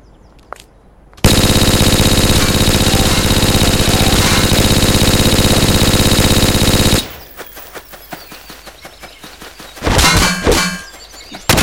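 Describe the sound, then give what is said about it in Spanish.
A loud, sustained burst of rapid video game weapon fire runs for several seconds, then gives way to scattered metallic clanks and pings before a brief final flurry of shots. “Los tiros son de las palitas.”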